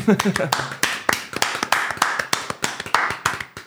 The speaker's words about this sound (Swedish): Hörni, en varm applåd.